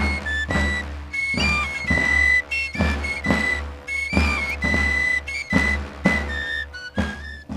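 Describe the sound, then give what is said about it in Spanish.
A shrill rociero pipe (pito) with few finger holes plays a lively, trilling melody, joined by other players, over steady, regular drumbeats; the player wears grey short traditional dress and a wide-brimmed Jerez hat of the Sanlúcar de Barrameda brotherhood. No one speaks. “¿Tiene truco esto del pito con tan pocos agujeros que dé tantas notas?”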